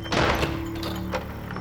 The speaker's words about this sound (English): It felt so good to slam that door in his face.